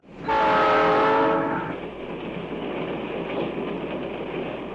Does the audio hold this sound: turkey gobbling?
no